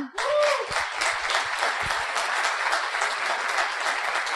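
Loud, sustained applause from a sizable audience fills the whole stretch, a dense steady clatter of many hands clapping with no pause.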